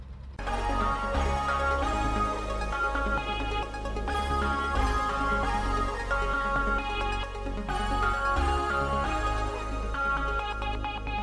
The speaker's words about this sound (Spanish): Y ahora vamos a dar paso a la cabecera y vamos empezamos. A, venga, la cabecera, vamos. Vámonos.